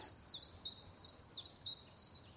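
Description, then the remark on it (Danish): A bird sings outdoors on a sunny spring day in April, repeating a bright, high chirp about seven times in a steady, even rhythm over a soft, quiet background with no voices. “Fuglene synger.”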